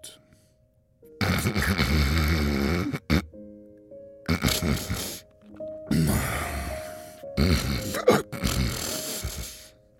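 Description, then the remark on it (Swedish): A voice imitates the loud snoring of the wolf from the Little Red Riding Hood tale after it fell asleep: four long, rough, rasping snores in a row, separated by short pauses, each harsh and grunting like a heavy sleeper. “Efter ett tag däckade vargen och började snarka helt överljud.”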